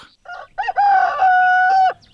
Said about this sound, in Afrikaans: sy is dou voor dag die volgende oggend wakker toe sy die bure se lastige haan hoor kraai. Hy kruip partykeer onder die heining deur en kom pla die henne.